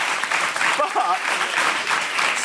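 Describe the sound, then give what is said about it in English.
A crowd applauds steadily for a couple of seconds, a dense wash of clapping at an even loudness, with a brief vocal whoop or voices mixed in near the middle. “save your applause because it's creeping up”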